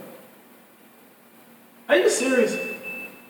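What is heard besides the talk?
alarm beeping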